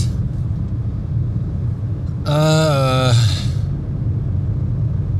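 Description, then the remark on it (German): Steady low rumble inside a car on a 35-degree day, with a constant hiss from the air conditioning, which has been turned down, while a man briefly voices a drawn-out hesitation sound partway through. “Ich meine, ich sitze hier im Auto, die Klimaanlage ist an und normalerweise ist die so an.”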